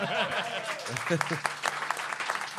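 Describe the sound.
Several sharp hand claps in an uneven rhythm ring out over voices talking and exclaiming, the claps crisp and fairly loud against the chatter.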